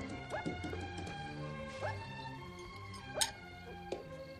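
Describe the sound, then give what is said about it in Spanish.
Slow, sparse hoof clops of a chestnut horse walking calmly with its rider at night in the countryside, a few separate knocks spaced unevenly over a steady tonal background hum. “caminaba tranquilo con su alazán hasta que un ruido a lo lejos lo puso alerta.”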